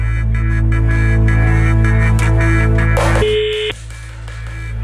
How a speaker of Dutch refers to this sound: Ergens in Nederland gaat een telefoon af